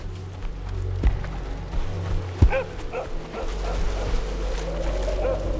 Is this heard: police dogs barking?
yes